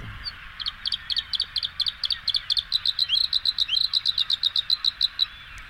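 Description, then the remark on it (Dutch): Bluethroat song from a phone speaker: a long run of bright, repeated high chirps that starts spaced and quickens into a steady, insistent trill, clear against a low background hum. “Ik ga het geluid laten horen op mijn telefoon.”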